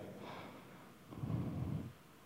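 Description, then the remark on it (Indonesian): A person imitates snoring with one drawn-out, rattling snort, preceded by a softer breathy inhale. It is moderately loud, with no talking during it. “Loh, jangan cuma suami, istri-istri banyak yang ngorok loh saudara.”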